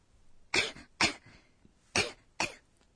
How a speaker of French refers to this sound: C'est une toux légère et on l'exprime ainsi.